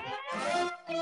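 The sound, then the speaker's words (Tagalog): A person gives a short, strained vocal imitation of a horse neigh, a wavering high-pitched call in two bursts separated by a brief gap. “Ngunit halinghing lang ang lumalabas sa bibig niya. Paano yung ano? Paano yung halinghing?”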